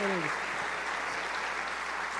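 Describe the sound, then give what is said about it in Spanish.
An audience applauds God for the life of their senior pastors in a dense, steady wash of clapping that holds evenly for a couple of seconds, with a brief voice cut off at the very start. “Sabes que vamos a dar un fuerte aplauso a Dios Can por la vida de God nuestros pastores.”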